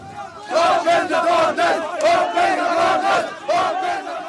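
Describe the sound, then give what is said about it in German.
A large, frustrated crowd at the closed Greek-Macedonian border gate chants in unison, loud rhythmic shouted phrases repeating roughly every second, with many voices blending into a rough, angry-sounding chorus. “Die Frustration darüber entlud sich erst in Sprechchören.”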